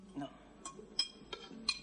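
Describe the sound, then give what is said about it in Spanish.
A spoon, taken up by a woman, clinks lightly against a dish four or so times, bright metallic taps spaced unevenly over a quiet background. “La mujer la mira con desprecio y coge la cuchara.”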